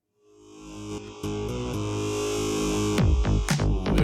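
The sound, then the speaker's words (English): A short burst of electronic music fades in, with droning synth tones and distorted, buzzing textures building into a dense, noisy wall of sound with sharp percussive hits near the end. “let's listen to a little bit of …”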